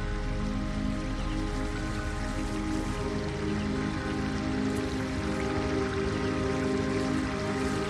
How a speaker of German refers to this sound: Das Rauschen des gewaltigen Flusses ist schon zu hören. Er wird uns direkt mitten hinein in die saftig grünen Reisfelder führen.